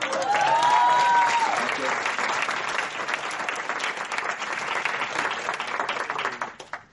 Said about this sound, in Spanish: Un aplauso para el caballero.